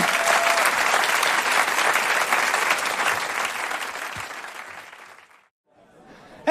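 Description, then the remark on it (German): A crowd applauds performers returning after a break, steadily for about five seconds, a dense wash of clapping that gradually thins and fades into silence before a brief noise at the very end. “Ach komm, hört auf zu applaudieren.”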